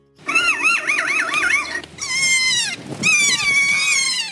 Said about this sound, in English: Here are just a few animal chortles a kea, a parrot native to New Zealand,